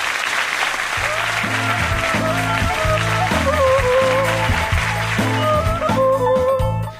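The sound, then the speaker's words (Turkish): Loud, steady applause with cheering-like crowd noise, running for about seven seconds over an upbeat musical backing with a stepping bass line and bright melody notes. “Yani evinde interneti olmayıp dinleyenlere de buradan kocaman bir alkış yani.”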